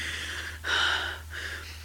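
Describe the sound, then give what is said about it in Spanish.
Rapid, heavy breaths rush in and out in a few ragged, gasping bursts, fairly loud, with a steady low hum underneath and no talking. “Comienza a respirar agitadamente.”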